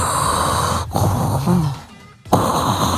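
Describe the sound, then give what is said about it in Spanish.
A voice imitates the heavy, wheezing breathing of a woman of about 100 years: harsh, raspy inhales and exhales, fairly loud, with a brief pause before the labored rasping resumes. “Y a su derecha, una señora de unos 100 años se sienta, respirando así como.”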